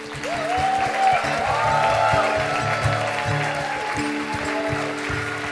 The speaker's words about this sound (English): And now to finish off, kids, I need you all to stand up because you need to give a big bow and everybody will give you a huge round of applause.